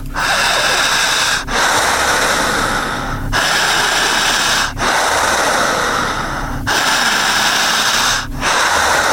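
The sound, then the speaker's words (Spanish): Loud, forceful breathing, each heavy breath running almost straight into the next with only brief pauses between, about every couple of seconds, and no talking; a patient doing strong, intense, deliberate breathing. “Paciente quien empiece a respirar bien, al minuto número uno, que todavía no llegamos, empezará a presentar algo llamado midriasis, fuerte la respiración, siempre fuerte y siempre intensa, eso.”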